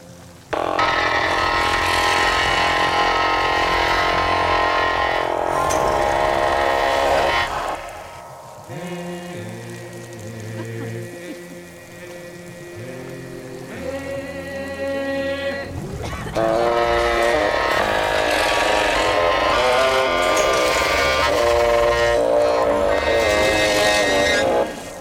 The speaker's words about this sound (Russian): Сам звук поющей машины тоже очень интересный. Это какой-то неидентифицируемый скрежет, в котором мелодика проступает как-то издалека. Звуки эти тоже собирали из подручных средств, например, брали электрогитару, многократно проводили ее через эффект